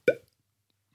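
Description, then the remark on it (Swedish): A single sharp, hollow pop made with the mouth, imitating a natural cork being pulled from a wine bottle, fairly loud, quickly fading into near silence. “Idag har man ju vin på kork, som säger.”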